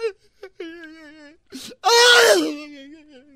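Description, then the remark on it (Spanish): A voice imitates a woman crying while telling a joke: wavering, whimpering wails that break into a sharp sob, then swell into one loud, drawn-out bawling cry before trailing off. Fairly loud. “Pues nada, una mujer estaba llorando.”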